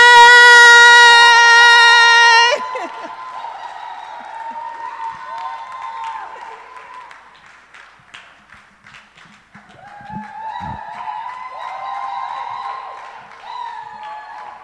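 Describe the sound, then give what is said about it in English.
An audience breaks into scattered, steady applause to welcome a woman pastor after a loud sustained keyboard chord fades, clapping continuing at moderate volume with soft music and faint murmuring underneath. “And so not saying much, or I, know I don't have a lot of words to say about her, but with a clap of friend, I want us to welcome”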